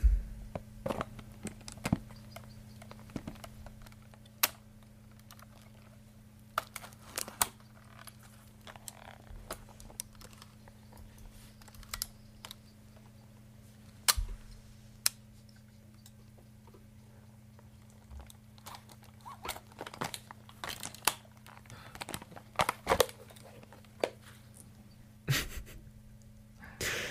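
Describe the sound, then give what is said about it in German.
Mechanical handling of an old Polaroid Land folding instant camera: irregular clicks, snaps and clacks as it is unfolded, cocked, its shutter released and folded shut again, with quiet fumbling between and a steady low hum. “Man hört das Aufklappen, also Deckel, Suche, Objektiv, Spannen, Auslösen und wieder zusammenklappen.”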